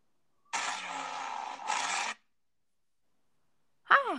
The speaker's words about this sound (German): war das gerade ein bremsendes Auto?